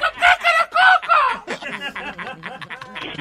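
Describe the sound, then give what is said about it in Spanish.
A rooster crows loudly in a couple of strained, rising-and-falling bursts, followed by people talking and chuckling. “¿Tú estás oyendo el gallo?”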